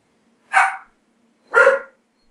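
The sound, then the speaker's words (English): Dogs bark twice, two loud, clear woofs about a second apart, with no talking in between. “I'm sorry, my dogs are barking.”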